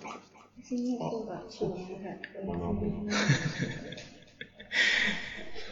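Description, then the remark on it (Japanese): A dog named Moogle whimpers in a few drawn-out, whiny bursts during a broadcast from Aomori Prefecture, with people's voices and some breathy noise mixed in around them. “いきなり、いきなりモーグリが泣いた。”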